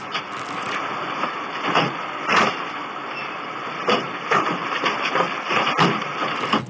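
Stones thrown at a vehicle as it turns back strike it in a series of sharp, irregular bangs that crack its windows, over a steady rumbling engine and road noise.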